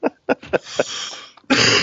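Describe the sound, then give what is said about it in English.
A few short, sharp coughs burst out in an uneven rhythm, trailing into a breathy rasp before a louder rough burst at the end. “I would have laughed hard, but I'm on the verge of coughing.”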